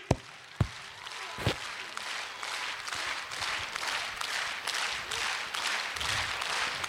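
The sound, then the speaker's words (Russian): Audience applause for a stage performance by a singer and a young performer: a dense wash of many hands clapping at steady volume, opening with a few sharp individual claps before the crowd joins in. “Бурные аплодисменты!”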